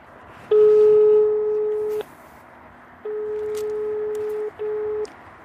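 A telephone ringing tone from an outgoing phone call: a steady, mid-pitched electronic beep sounding in long pulses separated by a pause, then a shorter burst, with no voices.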